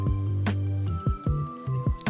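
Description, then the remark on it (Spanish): Glasses clink together in a New Year's toast, several sharp, bright taps over about two seconds, each leaving a faint ringing tone, fairly loud with no talking. “Salud. Ven.”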